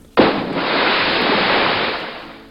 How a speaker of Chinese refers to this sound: 炮弹来袭。